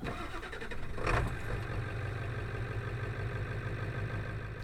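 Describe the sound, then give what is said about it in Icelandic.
Muffled interior of a parked car, which sits up on a headland, is on air suspension and rocks slightly in the wind: a steady low rumble of wind buffeting outside, with a brief louder surge early on, then a constant droning hum. No one speaks. “Sko nú sitjum við hérna inn í bíl, uppi á höfða og það er smá rók úti og hann svona veldir svona ruggar smá Já, já þessi bíl ruggar nút aldrei, hann er nú allur á loftbúðum”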